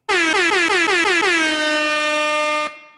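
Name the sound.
air horn sound effect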